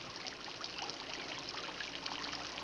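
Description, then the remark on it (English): Steady trickling stream water, a continuous soft babble with small bright splashes flickering through it, even in level for the whole stretch, with no voices. “I hear the water. I hear the birds.”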